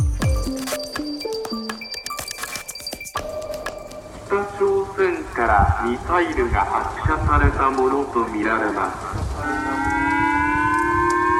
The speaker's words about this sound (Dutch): Het was even schrikken in Noord-Japan vanochtend vroeg. Door de luidsprekers klonk een waarschuwing dat Noord-Korea een raket had afgevuurd die richting Japan kwam. De bevolking werd gevraagd om dekking te zoeken.